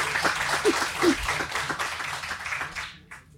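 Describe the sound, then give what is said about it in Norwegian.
Steady audience applause for a woman who has told her story, a dense wash of many hands clapping at moderate loudness, with a few faint voices underneath, fading out toward the end. “Jeg syns dere skal gi henne en applaus.”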